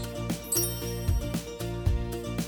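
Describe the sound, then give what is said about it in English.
Chimes ring out in bright, sustained tones over a soft, steady rhythmic pulse, forming a short musical jingle with no talking. “You will know when to start listening when you hear the chimes ring like this.”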